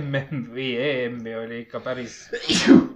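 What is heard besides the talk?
sneeze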